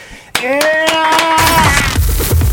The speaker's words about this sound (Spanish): Así que de eso y más, mejor para qué platicamos y para qué les digo, mejor presentemos con un gran aplauso